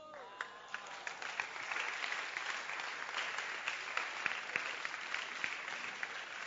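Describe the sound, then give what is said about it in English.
A crowd claps steadily for several seconds, a dense patter of many hands with occasional sharper individual claps standing out, fairly loud, with no one speaking. “Clap your hands. Clap. Clap it.”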